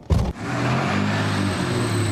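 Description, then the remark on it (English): A DeLorean car's engine runs with a steady, low droning hum, following a brief loud thump at the very start. No one speaks. “Are you telling me that you built a time machine out of a DeLorean?”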